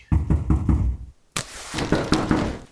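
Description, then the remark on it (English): Four heavy, evenly spaced, loud knocks on a locked door, followed after a brief pause by a harsher burst of rapid banging and rattling against the door. “Open the fucking door. Okay, hold on. Why did you lock it? I'm coming.”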